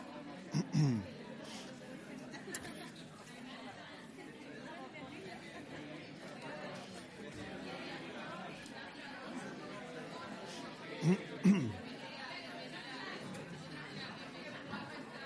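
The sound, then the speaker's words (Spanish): An audience of many people chatting at once as they greet and welcome the person beside them, a steady murmur of overlapping voices with a few louder bursts and light laughter rising out of the babble. “Vamos a saludarnos, que no lo hemos hecho hoy. A mí me gusta eh, a la persona que tienes al lado, dile bienvenido.”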